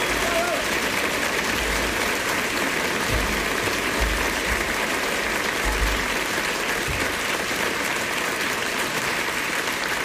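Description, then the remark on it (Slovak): Sustained applause from a crowd, a dense, steady clatter of many hands clapping at an even loudness for about ten seconds, with no clear pauses. “záver trochu potlesku.”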